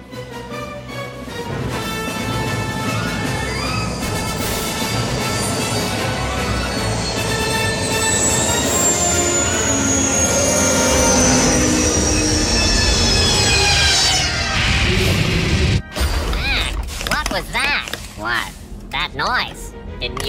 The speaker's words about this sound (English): It sounded like a ship docking at one of the emergency airlocks.